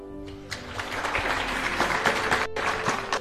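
A crowd applauds steadily, a dense wash of many hands clapping at once that holds at a fairly even, moderately loud level throughout, with no voices standing out.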